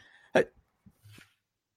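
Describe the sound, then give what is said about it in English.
A single sharp, loud sneeze bursts out, followed by a few soft breathy sounds and a quieter sniff-like exhale as it fades away. “Yeah, but I want to walk you through this as I to walk you through my sneeze.”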